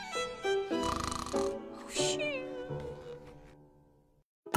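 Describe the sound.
A voice reading a children's story aloud imitates a character snoring in exaggerated, cartoonish fashion: a few drawn-out, raspy breaths with a whistly, breathy edge, repeating roughly three times before trailing off to silence.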